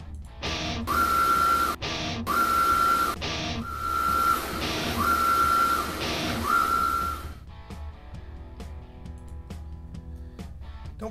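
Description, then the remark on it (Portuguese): A short intro jingle: repeated whistle-like tones ride over loud, rhythmic bursts of noisy texture, then the music drops to a quieter, sparser tail. No one speaks. “Vamos soltar a vinheta e começar.”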